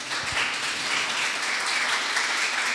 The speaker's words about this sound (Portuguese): Obrigado pela presença de vocês. A gente quer receber vocês com a salva de palmas